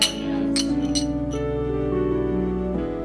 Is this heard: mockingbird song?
no